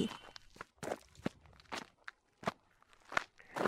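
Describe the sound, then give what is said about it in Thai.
Crunchy footsteps of two people walking home on a gritty surface, about nine steps in an uneven rhythm, moderately loud, with no talking. “แล้วทั้งคู่ก็เดินกลับบ้าน”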